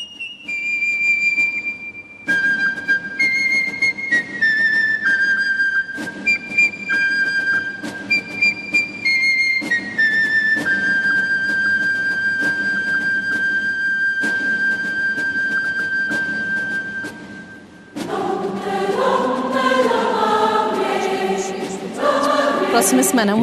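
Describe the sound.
A shrill, piping melody of sustained high notes steps through a simple tune over a steady backing, then a full chorus of voices with orchestra swells in loudly near the end.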